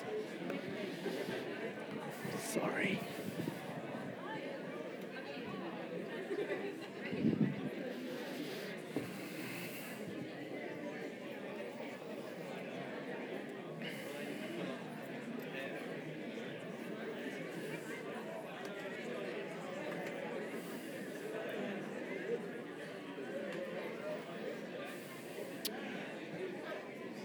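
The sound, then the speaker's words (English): A large crowd chats all at once, a steady hubbub of many overlapping voices as people turn to those around them and greet one another with 'kia ora', with occasional louder bursts rising out of the murmur. “maybe just take a minute uh, turn to a couple of people around you and just say, Kia ora, Moraina, we're kind of out of all that non touching, but check before you touch them.”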